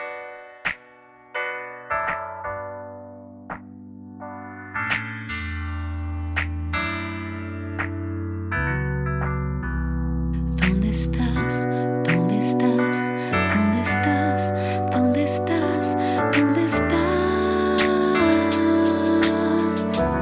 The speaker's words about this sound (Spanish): Pero antes de adentrarnos en el tema, les invito a escuchar el tema principal de la película